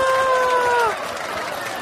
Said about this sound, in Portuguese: eu peço aí uma salva de palmas para ele. Aê, linda, gostoso!